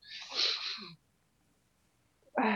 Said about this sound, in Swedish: Producenten nyser bara.